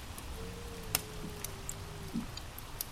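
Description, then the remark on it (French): A wood fire crackles quietly in a fireplace, with a few sparse, sharp pops scattered over a soft hiss and a faint steady low hum, no voices. “Mais vous continuez d'entendre le feu crépiter dans la cheminée et le vent dehors murmurer, vous bercer.”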